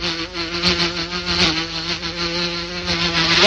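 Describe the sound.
A voice imitates a mosquito with a steady, nasal buzz that holds for a few seconds, wavering slightly and rising in pitch at the very end, with no talking.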